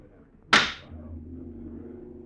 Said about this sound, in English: Listen. The drone of lawmakers before the President of the Senate raps the gavel for silence.